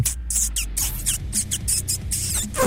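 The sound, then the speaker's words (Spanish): High, squeaky chattering like a voice mimicking a tiny mouse talking, with rapid little chirps and breathy, hissing bursts, continuous for a few seconds. “es como un ratoncito que le habla.”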